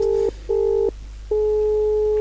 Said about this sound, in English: Oh, there we go. Oh, oh, oh, Morse code. He's saying the game's boring.